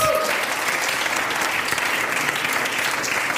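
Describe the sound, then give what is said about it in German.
Steady, dense applause from an audience for people called to the front, a continuous wash of many hands clapping at an even loudness throughout, with no voices standing out. “Komm und gebt ihm mal einen Applaus.”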